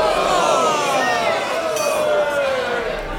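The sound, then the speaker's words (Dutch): A lively party crowd at a Swedish club's annual crayfish party chatters and laughs all around, with glasses clinking now and then through the steady, dense hubbub of many overlapping voices. “Dit is het jaarlijkse kreeftfeest van de Zweedse club, waar ik sinds kort lid van ben, om een gevoel van thuis op te wekken en de band met Zweden niet kwijt te raken.”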